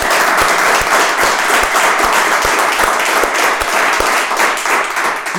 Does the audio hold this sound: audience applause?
yes